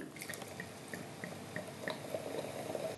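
Sparkling rosé wine being poured into a glass: a quiet run of evenly spaced liquid plinks gives way to a fuller, bubbly fizzing pour that builds toward the end, with no talking.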